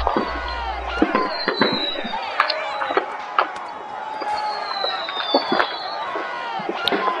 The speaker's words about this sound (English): As they come toward the line of British and Germans. They're banging their swords and axes on their shields, chanting.